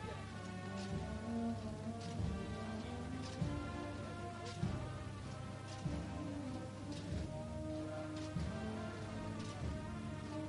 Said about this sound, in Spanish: Eso avanza lentamente, suena la bambalinas.